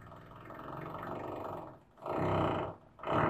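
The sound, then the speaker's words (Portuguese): A neighbour's power drill drills into something upstairs: a loud, rough rumbling buzz that runs steadily for a stretch, stops briefly, then returns in two shorter bursts. No one speaks. “Fique agora então com a furadeira do vizinho.”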